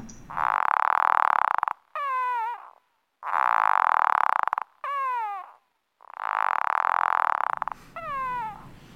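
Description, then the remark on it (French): Stridulation of a death's-head hawkmoth protesting when picked up, slowed to one-eighth of original speed: three long, loud buzzing rasps, each followed by a short descending, warbling squeak, repeating at a steady rhythm with brief silences between. “Alors pour l'entendre mieux, on peut le ralentir euh, un huitième de la vitesse d'origine.”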